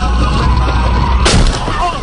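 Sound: car crash sound effect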